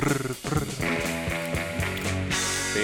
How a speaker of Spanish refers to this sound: hay riffs clásicos son estos, ¿no? Ese Spring Reverb, ¿oyen ese reverb de la lira? Sí, Suena así como...